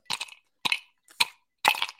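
Four sharp cracking crunches of ice breaking in a glass, bright and brittle with a faint clink, coming in uneven bursts with short silences between and no talking.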